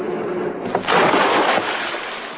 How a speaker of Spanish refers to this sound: ¡Le ha pegado usted a una llanta! Pierden el control. Se van al río.